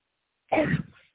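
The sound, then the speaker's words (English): A deep breath, then a single harsh, rough cough, forced up from deep in the gut like clearing the throat, lasting about half a second and trailing off, with silence around it. “A deep breath and a cough from your gut.”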